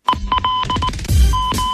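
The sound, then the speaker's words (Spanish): A radio goal alert on ADN plays loudly for a goal by La Serena in the 90+7th minute: a quick run of short electronic beeps over a dense, busy background, then a longer sustained tone that holds to the end. “Alarma de gol en La Serena.”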